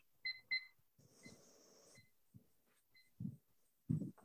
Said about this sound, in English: I'll set a timer.